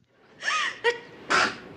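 A single sneeze: a voiced, gasping intake of breath and a short catch, then a sharp, breathy burst. No one speaks.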